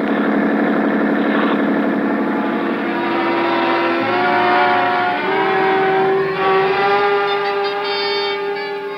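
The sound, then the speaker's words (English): A powerful police boat engine roars at speed, a loud, steady droning hum that climbs in pitch a few times as it pushes harder, with no voices over it. “A twenty-minute start isn't much when a schooner with auxiliary power is matched against a police boat.”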